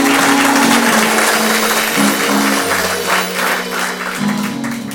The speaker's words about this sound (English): bazalwane not two years 30 years amen you can give them another round of applause